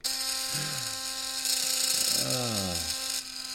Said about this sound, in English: You know, the sad part is, is that actually sounds like an electric shaver. Really? Yes. It really is. I actually I jerry rigged it so I can clean my teeth with it as well as shave.